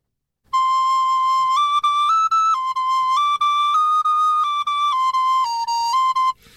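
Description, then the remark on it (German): A rosewood wind instrument plays a string of sustained notes one after another, trying out each note in order, stepping up and down in pitch with brief breaks between them, clear with no talking. “Ich muss mal alle Töne ausprobieren, der Reihe nach.”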